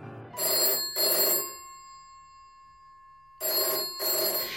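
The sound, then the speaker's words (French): An old-fashioned telephone bell rings in a quick double burst, pauses for about two seconds with a fading ring, then rings twice again, loud and bright, with no voices. “Martin et Coretta se découvrent d'abord par téléphone.”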